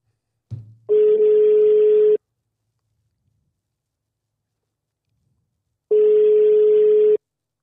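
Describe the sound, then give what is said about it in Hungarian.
A phone line's ringing tone while a call is placed: two long, steady electronic tones about four seconds apart, separated by silence, preceded by a brief click at the start. No voices. “Pedig tudja, hogy hívjuk.”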